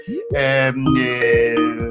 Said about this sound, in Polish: Mm, o, ktoś dzwoni.